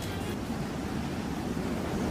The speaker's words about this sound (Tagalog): labas ng hangin! Parang may bagyo! Ito mo yung alon? Ang laki at ang taas!